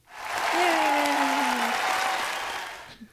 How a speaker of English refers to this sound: Do the applause again.